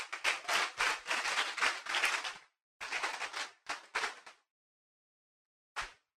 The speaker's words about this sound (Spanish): Aplauda al Señor con fuerza.